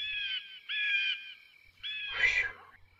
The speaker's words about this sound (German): Oh, da kommt ein Adler geflogen. Aufpassen, schnell bücken.